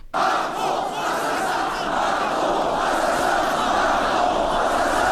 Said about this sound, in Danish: Og det budskab, det fik jo så den her folkemængde til takfast at stå og råbe Macron assassin, som kan oversættes til morder Macron.